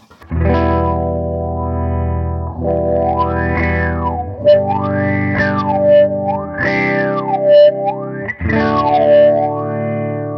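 Loud, distorted electric guitar chords ring out through a Boss MD-200 modulation pedal, a slow sweeping whoosh rising and falling about five times as the chords change every few seconds; no one speaks.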